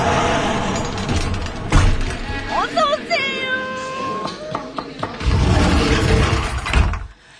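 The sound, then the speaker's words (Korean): A keypad door lock opens with a short rising electronic chime and a mechanical latch clunk, with voices murmuring in the background. “이거, 이거, 이거, 이거, 뿅뿅 번호 해야 되잖아, 이거. 아, 오늘은 열려요.”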